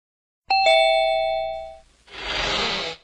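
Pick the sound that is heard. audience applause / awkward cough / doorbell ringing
doorbell ringing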